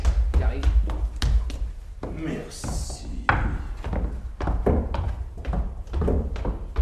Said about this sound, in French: voulez-vous venir ici Faire les bruits de pas